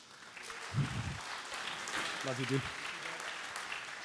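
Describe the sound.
A crowd applauds steadily, a dense wash of clapping that fills the whole clip, while a man briefly speaks a few words over it.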